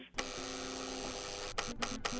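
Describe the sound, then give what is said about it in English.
A harsh electric door buzzer, rung from downstairs, sounds one long, steady buzz, then three quick short buzzes in a row, loud and with no voices over it; one long and three short buzzes signal wanting to come upstairs. “I'm downstairs ringing your buzzer.”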